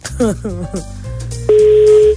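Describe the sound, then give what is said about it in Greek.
Talking gives way to a loud, steady, single-pitched telephone ringing tone as a call is placed, sounding as one sustained beep of well over half a second and then stopping. “Για να Χτυπάει.”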